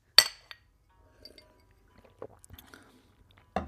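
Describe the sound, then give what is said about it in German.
Glasses clink together in a toast: one bright, ringing clink, a lighter tap right after, then quiet small handling sounds before another clear clink at the end. “Okay, gut, dann auf Bill. Ja, auf Bill. Prost.”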